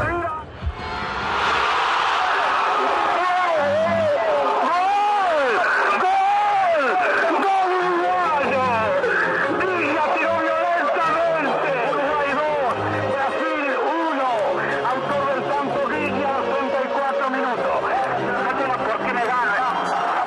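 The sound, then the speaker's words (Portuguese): A huge crowd at the Estadio Centenario roars the second goal, thousands of voices shouting and rising in pitch together, loud and sustained for the whole stretch with no break in the din. “mas agora a gente escutou é, o estádio centenário gritando o gol para o homem que fez o segundo gol e que não pôde escutar”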